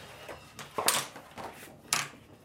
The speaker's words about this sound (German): Die alte gusseiserne Druckmaschine in der Hersbrucker Bücherwerkstätte rattert und klackert. Am hinteren Ende spuckt sie das Kalenderblatt für den Monat Februar aus.